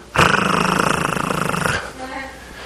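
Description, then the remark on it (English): A voice imitates a lion's purring growl, one loud, rough, rumbling sound with a rapid fluttering pulse, held for under two seconds before fading into quieter speech. “just purring. He looks over there, and there's a lion crouched down right to the right of him.”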